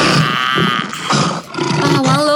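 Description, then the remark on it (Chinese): A loud, sustained tyrannosaurus roar sound effect, harsh and rumbling with a wavering, growly texture that surges in several swells over a couple of seconds, with no talking over it. “吼一声，从格鲁克龙手上抢回甲龙宝宝”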